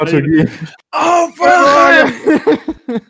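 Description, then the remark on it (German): A voice imitates a hellish roar with drawn-out, strained groaning bursts, loud, broken by short pauses and ending in rougher, choppier growls. “kommt gleich, ich weiß gar nicht, wie es heißt, aber hier höllisches Gebrüll oder oh, sowas.”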